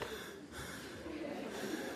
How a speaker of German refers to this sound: und jetzt atmen Sie bitte in dieser Haltung tief ein und aus.